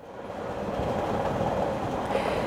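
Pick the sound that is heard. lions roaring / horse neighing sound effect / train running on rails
train running on rails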